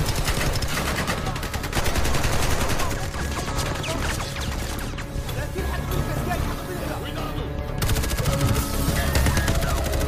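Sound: gunfire sound effect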